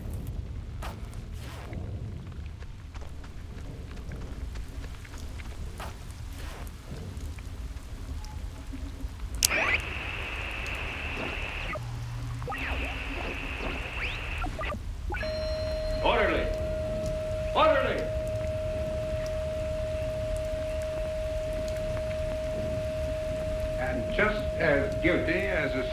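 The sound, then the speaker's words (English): Steady rain pours throughout, a dense hiss with scattered patters, while faint muffled voices and a sustained electronic tone sit underneath the downpour. “It's like louder than the rainstorm.”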